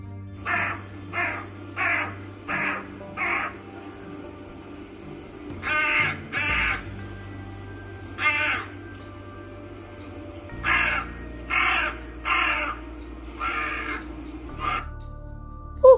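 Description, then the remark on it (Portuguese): A crow caws loudly in harsh, raspy bursts: a quick run of four, then a pair, a single call, another run of four and one more, over a low steady hum. “E para mostrar à raposa que sabia cantar, abriu o bico e soltou um sonoro canto.”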